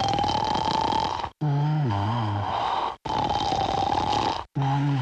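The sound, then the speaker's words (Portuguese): A person snoring loudly, with rough rasping breaths alternating with deeper throaty rumbles in a steady rhythm, each breath separated by a brief pause. “E a resposta correta é. Alguém a ressonar.”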